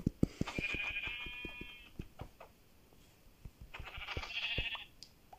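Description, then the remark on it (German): Two wavering bleats from a sheep in a video game, one near the start and another about three seconds later, each sounding over a series of sharp clicking taps, with no talking. “Oh, da hinten ist ein Schaf.”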